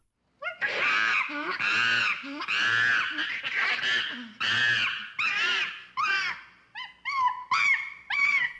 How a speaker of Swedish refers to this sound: Sök på Angry Chimp Sound på YouTube så fattar du.